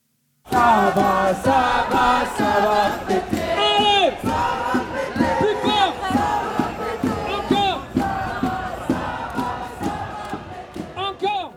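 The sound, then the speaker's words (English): A large protest crowd on the streets of France chants the slogan "Tout le monde déteste la police" ("Everyone hates the police") in unison, many voices shouting together in a loud, rhythmic, continuous roar that swells and repeats throughout. “And you don't have to go far on those streets to hear Tout le monde déteste la police. Everyone hates the police. One of the most common chants on demonstrations nationwide”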